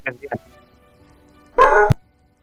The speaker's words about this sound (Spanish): Cállate, cállate tu perro, weón.